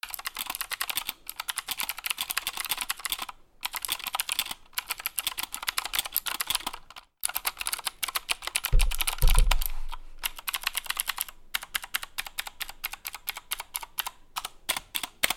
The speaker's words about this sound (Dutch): Dat is mijn mechanische toetsenbord, die we dan even kunnen gaan bespreken.